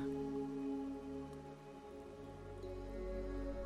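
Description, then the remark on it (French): A steady, continuous rush of falling water from a small waterfall in a light-filled clearing surrounded by large trees, blended with a soft sustained musical drone. It's moderately quiet and unbroken throughout, with no voices. “Mais voici que vous entendez maintenant le bruit de l'eau qui coule, le chant d'une cascade vous la découvrez dans une petite clairière entourée d'arbres majestueux et baignée de lumière.”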